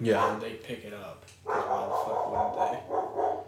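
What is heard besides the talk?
dogs barking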